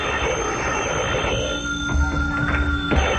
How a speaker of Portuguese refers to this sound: Pode atender o telefone, né?